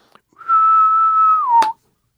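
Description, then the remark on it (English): A male periodical cicada (Magicicada septendecim) sings a steady, high whistle-like call for about a second, dipping slightly in pitch at the end, and a female answers with a single sharp click by flicking her wings. “She doesn't have any way of calling, but she does respond by flicking her wings.”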